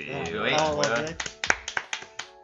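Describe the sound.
A voice talks briefly, then a short burst of applause follows: about seven sharp, close handclaps in a quick, steady rhythm, fading slightly toward the end.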